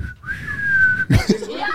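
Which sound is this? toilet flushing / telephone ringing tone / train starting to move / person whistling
person whistling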